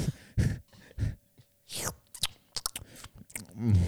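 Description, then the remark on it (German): Wet lip smacks and chewing sounds in an irregular series as a person smacks and burps a little, with a breathy swoosh partway through and a short voiced murmur near the end. “Und dann fängst du an zu schmatzen und so ein bisschen rülpsen”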